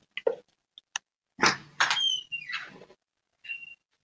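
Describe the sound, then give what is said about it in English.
An apartment door is opened after someone knocks: a couple of sharp latch clicks, then a long creaking, squealing hinge sweep and a short final squeak as it swings, with no voices. “Come on, it's open.”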